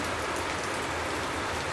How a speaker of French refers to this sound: Il y a un orage qui est en train de tomber et il pleut fort.